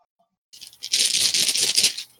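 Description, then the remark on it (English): Dice rattle and clatter for about a second and a half, a busy jumble of small hard clicks that swells quickly and then stops. No one speaks. “Click clack rocks are special.”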